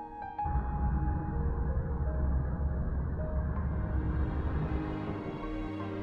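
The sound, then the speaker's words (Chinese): An airplane taking off: a loud, steady low roar kicks in abruptly and rumbles on for several seconds, with a thin engine whine rising higher toward the end. No one speaks. “刚刚那是飞机起飞的声音，我觉得特别巧，刚好它可能把我们的不快乐的事情都给带走了。”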